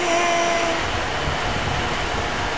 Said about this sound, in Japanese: 今結構風が強いんですけど、はい、ドローンは場所をそのまま維持してますねこれは GPS の力で、はい、その場所から動かないようになってるんですねこれね